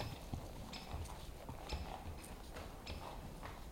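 Horse hooves clip-clop in a steady walking rhythm, a carriage drawn by headless horses carrying the ghost of Anne rolling up to a manor house at night, regular hoofbeats over a soft background rumble, no voices present.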